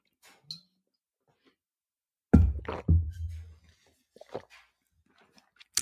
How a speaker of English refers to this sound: Well, well after I drink some more water because, oh my gosh, guys, cotton mouth.